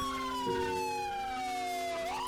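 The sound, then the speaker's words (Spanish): A police siren wails steadily, its long tone gliding slowly downward before sweeping back up, loud with a low rumble beneath and no voices. “El ulular de sirenas aturdía los oídos y las emociones.”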